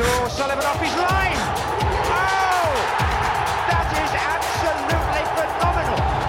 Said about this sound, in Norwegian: Sola skinner ikke, men vi skal til spørsmål. Skulle du ha jingle nå? Ja. ja ok.